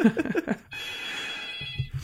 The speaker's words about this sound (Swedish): Oj, en gammal telefon. Ja, här har de hemtelefon vet du. Fantastiskt. Som är precis bakom mig här. Vi ignorerar det och kör på bara, det slutar snart.